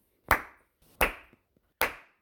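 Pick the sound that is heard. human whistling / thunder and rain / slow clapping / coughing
slow clapping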